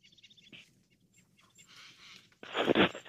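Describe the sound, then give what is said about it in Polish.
Birds chirp and twitter faintly in the distance in a quiet forest beside a road in the Rosyjski National Park, with soft rustling underneath and a louder burst of scraping noise near the end. “w głębi gdzieś tam było słychać e, świegot ptaków.”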